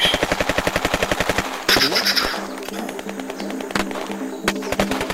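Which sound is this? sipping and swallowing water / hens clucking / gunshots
gunshots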